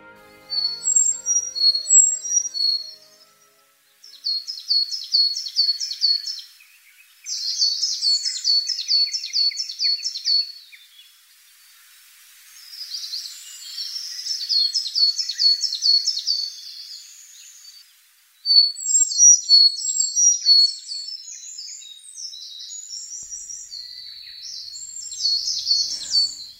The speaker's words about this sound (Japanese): おととしの初夏の森ではエゾムシクイとミソサザイがよく鳴いていましたこのほかヒガラウグイスなどの声も聞こえますエゾムシクイはウグイスに近い仲間の鳥